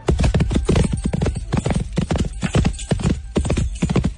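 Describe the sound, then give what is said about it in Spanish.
A horse gallops away, its hooves striking in a quick, steady rhythm of sharp, loud clip-clops, continuous throughout, with no voices present. “El caballo regresó veloz junto a su ama.”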